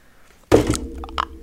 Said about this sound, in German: Was hast du gemacht? Mir ist dein Handy runtergefallen. Puff.